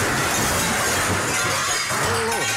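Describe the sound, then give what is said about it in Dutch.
A loud crash of shattering glass, dense and noisy across the whole range, with debris crunching and rumbling for a couple of seconds as a car drives into a building. “Er, er rijdt net een, eh, een auto eh, bij ons tegen die, meneer die rijdt eh, de puin eruit.”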